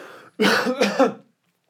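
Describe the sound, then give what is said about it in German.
A short, pointed cough of two or three quick, rough bursts, fairly loud, sounding a bit forced, with no talking around it: a deliberate cough given as a signal of the right answer to a quiz show contestant. “Und immer, wenn dieser Huster kam, von diesen beiden Personen, also seiner Frau und den involvierten Mitkandidat, wusste er, es war die richtige Antwort, hat das genommen”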